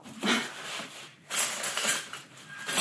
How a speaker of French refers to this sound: j'ai des sacs avec euh, des couverts différents.